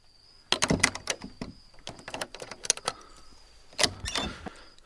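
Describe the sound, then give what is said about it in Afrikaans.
A door is unlatched and opened, with a cluster of sharp clicks and rattling knocks, a brief creak, then another clack as it swings, with no one speaking. “maak oop.”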